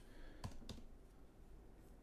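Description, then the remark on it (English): Two soft computer keyboard key clicks land close together early on as someone types, then only a quiet room hum remains. No one speaks. “I'm typing in.”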